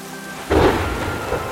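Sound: thunderstorm with heavy rain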